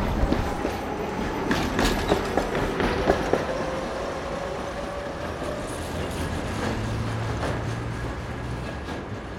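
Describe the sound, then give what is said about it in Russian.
A tram rumbles past a building in the historic part of Samara with a steady low drone and metallic rattling and clacking, loud throughout, with brief squeals and a deep hum that shakes the building. “И что здесь э, рядом проезжает трамвай, и на всех интервью его слышно, и слышно, как трясется само здание.”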